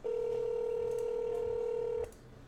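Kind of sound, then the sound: signal or alarm, telephone keypad dialing tones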